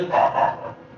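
A dog barks loudly and close by, two quick, strong barks running together before fading out, with no one speaking.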